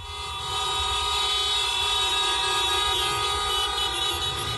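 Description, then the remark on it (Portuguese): A dense, continuous blare of many car horns honking together in a protest in front of a judge's house, organized by the association Mães e Pais pela Democracia, sustained and loud throughout with overlapping tones and a low rumble of traffic beneath, no voices audible. “inclusive ontem teve manifestação em frente à casa dela. É, teve uhum. um buzinaço.”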